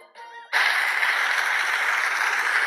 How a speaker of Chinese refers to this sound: 全场啊，响起了祝贺的掌声。